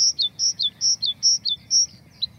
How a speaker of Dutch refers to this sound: Ja. Dat is een mooi geluid op zich al. Nu, een blauwborst heeft, eh, heeft veel van dat aangeleerde gedeelte. Die kan heel veel variëren in zijn zang. Dus dat is, dat is op zich al tof.